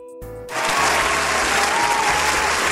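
Applause swells in after a brief moment and continues as a dense, steady wash of many hands clapping, loud and sustained with no voices standing out.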